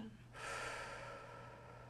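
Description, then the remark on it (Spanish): A long, deep inhalation into the microphone as part of a deep-breathing exercise, a steady airy rush that begins abruptly and holds for over a second and a half, with no talking. “Mm, ahora sí que yo sé que lo has escuchado mucho, pero es la respiración profunda. Inhalar.”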